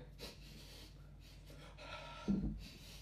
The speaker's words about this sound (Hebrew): אז מדענים גילו שפיזית, כשעושים נשימה, אוקיי? ולוקחים דאבל, נשימה כפולה, יש משהו בשרעפת, זה השריר הזה פה, שהוא מפריד בין הקיבה לבין הריאות